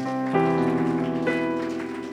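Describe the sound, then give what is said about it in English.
A crowd claps their hands in praise of God in a steady, dense, rain-like patter beneath loud sustained keyboard chords that swell and shift twice. “Why don't we clap our hands one more time”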